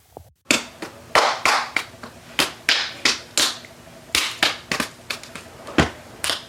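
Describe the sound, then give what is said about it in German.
A rapid handshake routine of hands slapping together: about fifteen sharp, loud smacks in an uneven, quick rhythm, some landing in close pairs, with no talking. “Na, dann bringen wir doch schnell den Handschlag.”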